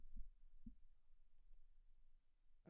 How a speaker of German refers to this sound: Achso, ich muss auf Stopp klicken, ne?